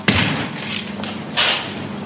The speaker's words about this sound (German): Und jetzt hier, wenn er hier eine Tür aufmacht, Notaus Notausgang, dann stehen wir